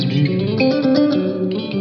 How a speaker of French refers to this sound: Alors c'est une reverb externe, hein, par contre, je pense, parce que je crois pas que qu'elle soit. C'est une reverb externe, oui, c'est une reverb externe.